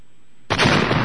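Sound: bomb explosion sound effect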